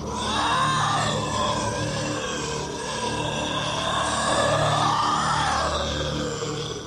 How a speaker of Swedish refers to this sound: men sen det här jäkla monsterljudet, vi kan ju klippa in det så får ni höra.